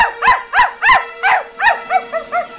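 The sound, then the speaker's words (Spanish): A small female dog named Pata barks frantically, firing off about eight sharp, high-pitched yaps in quick succession, loud, with no voices around it. “La perrita ladra como loca.”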